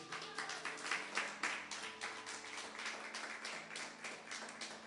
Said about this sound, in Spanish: Dale un aplauso al Señor, iglesia.